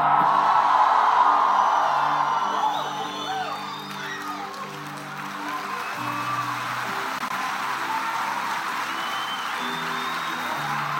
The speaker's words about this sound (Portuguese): Só quem crê dá o um grito mais alto.